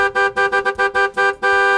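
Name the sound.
car horns honking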